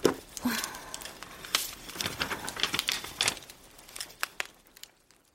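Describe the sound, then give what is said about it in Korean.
Dry paper rustling and crinkling, a flurry of quick papery crackles and soft flicks as an old foreign book is opened and its pages handled and turned, with no voices. “책을 펼치자마자 사파가 나왔다.”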